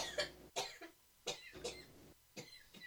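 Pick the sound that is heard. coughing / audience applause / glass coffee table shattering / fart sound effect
coughing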